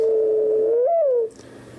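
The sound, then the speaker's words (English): A mourning dove gives one long, low, hollow coo in the morning in south central Indiana; it holds steady, lifts briefly, then slides softly downward. It is clear, with faint background hiss and no voices. “the morning, one might hear the mourning dove,”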